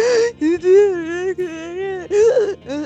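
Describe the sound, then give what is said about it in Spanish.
A voice imitates crying with wavering, whimpering sobs broken by several sharp catching breaths, like hiccups between wails. Fairly loud, with no other sounds. “La weón es brígida, porque estás llorando y de por sí te da hipo, entonces estoy.”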